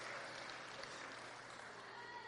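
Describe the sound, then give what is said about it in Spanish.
A church audience claps steadily for a couple of seconds to welcome a first-time visitor, a dense, even patter of many hands, fairly soft throughout. “Un aplauso también para ella.”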